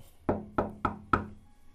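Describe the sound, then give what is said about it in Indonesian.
A bakso seller delivering food knocks four slow, evenly spaced times on the closed wooden front door of a house. Each knock is a dull thud with a short ring. No voices. “Sesampainya di depan pintu, perlahan saya ketok-ketok.”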